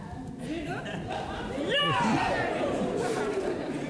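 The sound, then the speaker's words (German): An audience, including elders, cheers in jubilation after a sudden silence because their prayer for a man's release was answered. Many voices overlap in lively crowd chatter that swells louder partway through and stays loud, with excited rising and falling shouts. “Doch dann brach Jubel los, da Gott das Gebet wirklich erhört hatte”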